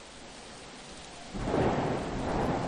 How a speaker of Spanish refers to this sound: Nos pusimos en camino bajo una lluvia tupida